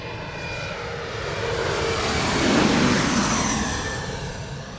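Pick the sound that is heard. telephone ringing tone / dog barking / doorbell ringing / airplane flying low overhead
airplane flying low overhead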